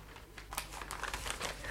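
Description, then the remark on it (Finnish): Paper crinkles and rustles as a package is unwrapped, a series of irregular crisp crackles and soft tearing bursts at moderate volume, with no talking over it. “Miepä katso, mitä paketissa on.”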